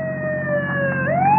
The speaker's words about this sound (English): it's a cop's car in back of us. Step on it. Hey, he's gaining on us.